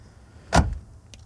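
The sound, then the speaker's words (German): A single dull, heavy thump as luggage is set down in the trunk of an older-model car, followed by a few faint clicks in an otherwise quiet space. “Alles in den Kofferraum rein.”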